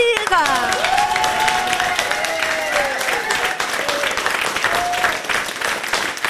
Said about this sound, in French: Un grand merci à eux. On peut les applaudir.